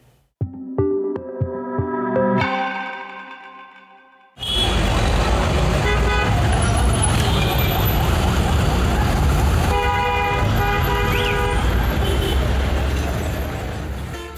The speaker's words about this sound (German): Was wir da gerade gehört haben, ist der Sound von Dhaka, der Hauptstadt von Bangladesch.